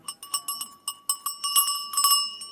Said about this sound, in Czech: a už to zvoní správně? Kravským zvonečkem. Tohle to je zvoneček suvenírový. Zvon, který se skládá ze dvou půlek a pak se svařuje a ková se z plátů a který nosí krávy na krku jenom při dvou příležitostech a to je na jaře, když jdou na pastvu